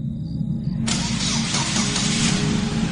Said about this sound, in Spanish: Entonces, acciono la llave y compruebo que el coche se enciende perfectamente.